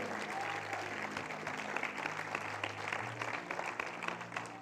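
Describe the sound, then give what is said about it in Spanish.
An audience applauds the Lord steadily during a morning service, dense continuous clapping at a fairly loud level, with a sustained low musical drone and faint crowd murmur underneath throughout. “Vamos, fuerte el aplauso al Señor.”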